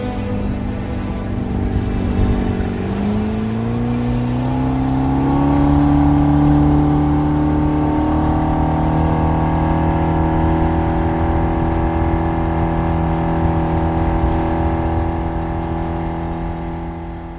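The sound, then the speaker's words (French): A loud engine revs up, its pitch climbing as the vehicle accelerates and speeds away, then settles into a steady droning roar that eases slightly toward the end. No voices. “Les mi restent derrière. Ils ne peuvent pas suivre le moteur.”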